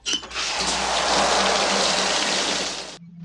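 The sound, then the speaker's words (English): In a comedy film scene where the lights have gone off, a sudden heavy rush of water pours down over a man reaching for a door handle, soaking him: a dense, hissing splash for about three seconds that cuts off abruptly, followed by a faint low hum. “it turns out to be a shell and he gets soaked”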